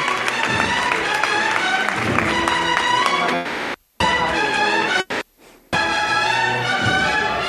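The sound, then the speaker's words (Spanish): Loud, dense applause and cheering from the whole street crowd as the misterio takes a big stride forward, a continuous wash of clapping mixed with many voices, cut off by a couple of brief silent gaps before resuming. “Sobre los pies hacia adelante, una gran zancada hacia adelante y el aplauso de toda la calle”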